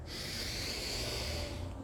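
A single long, deep breath drawn close to the microphone, a steady airy rush lasting about two seconds with no talking over it.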